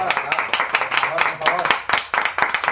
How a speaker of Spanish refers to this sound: Un aplauso a Pirata Caletera, por favor.